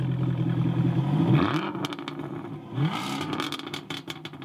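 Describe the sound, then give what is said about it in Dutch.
A deep, rumbling V8 car engine revs hard twice, each burst rising in pitch, with crackling pops and exhaust burble between them, loud with no voices. “we dus willen een V8.”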